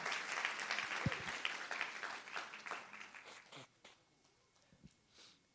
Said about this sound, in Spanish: ¿Alguien lo cree? Alguien que le dé un aplauso al Señor y lo crea. Somebody that will believe the Lord and give him a hand clap this morning.